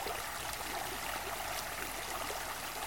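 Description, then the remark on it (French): A steady stream of flowing water babbles and splashes continuously, a bright, even rush that stays at the same moderate level throughout with no voices. “Écoutez ce bruit de l'eau, ce ruisseau.”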